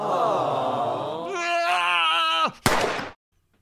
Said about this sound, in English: Was that a gun? You have a gun?